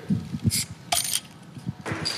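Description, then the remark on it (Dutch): Metallic clinks and scraping as the cap of a bottle of 0.5% alcohol IPA beer is worked loose, followed by a couple of short hissing bursts as the bottle pops open, with a faint fizzy tail. “En daar gaat het flesje open.”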